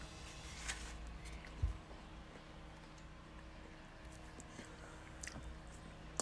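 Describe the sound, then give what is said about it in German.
Crisp crunching of someone chewing an apple: a few scattered bites and chews over several seconds, with a louder crunch near the start and quiet background noise between. “Ich bin vor 20 Minuten aufgestanden und habe dementsprechend nichts gefrühstückt und ernähre so. mich jetzt von einem Apfel.”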